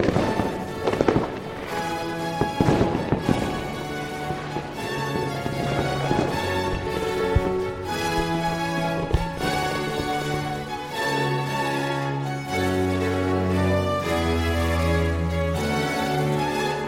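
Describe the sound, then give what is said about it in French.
Fireworks crackle and bang in a cluster of sharp bursts early on, with a lone pop later, all over steady orchestral music that plays loudly throughout and carries on once the explosions fade. “plusieurs cours d'Allemagne, on se ruine en fêtes et en feux d'artifice pour imiter Versailles.”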